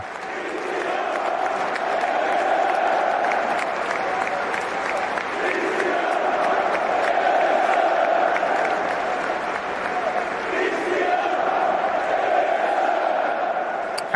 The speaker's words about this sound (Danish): Jeg har faktisk øh, den lyd, der, lad os lige prøve at høre det her, det er, hvor øh, de finske fans begynder at råbe Christian, der mens man står og venter på nyt om Christian Eriksen, og så responderer de danske fans Eriksen,